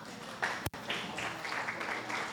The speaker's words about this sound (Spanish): Un aplauso para los actores.